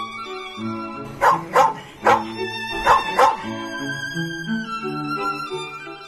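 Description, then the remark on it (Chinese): A dog, the postman yellow dog of a children's story, barks five sharp times at a door in short clusters over a steady bed of soft, tuneful music, then the music carries on alone for the last few seconds. “邮递员黄狗在门口喊”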